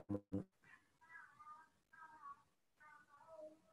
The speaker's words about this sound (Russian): Кота слышно.